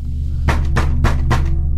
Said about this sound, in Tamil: எங்கேருந்தோ ஒரு சத்தம் ஆனால் நைட் ஷிஃப்டில் நான் ஒருத்தர் மட்டும்தான் வேலை பார்க்குறேன் கதவு திறக்கிற சத்தம்